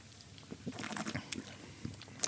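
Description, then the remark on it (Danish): Wet, airy slurping of champagne during a tasting, in a few uneven bursts, with soft sloshing and smacking noises in between. Fairly quiet and no one speaks. “Den der lyder, du er nødt til lige at forklare”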